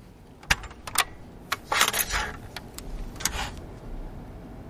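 A portable cassette player being opened and its tape taken out: a quick series of sharp plastic clicks and a brief rattling clatter, heard on its own with no voices.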